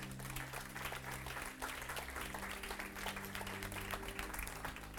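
An audience applauds steadily for about five seconds, a dense wash of overlapping claps at even loudness, with a low sustained hum underneath and no talking.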